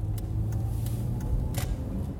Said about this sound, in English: I'm driving in my car, headed to an antique shop close to my house in Tucson, Arizona.